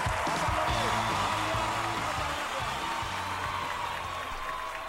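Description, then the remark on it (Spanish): A crowd claps steadily and loudly for the whole stretch, a dense wash of applause after a funny piece, with a low hum of voices or music underneath, fading slightly near the end. “Un fuerte aplauso para Leo.”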